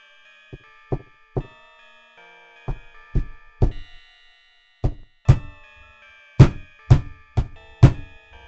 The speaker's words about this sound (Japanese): パソコン机の前に戻った時、何か軽く叩くような音が聞こえてきました。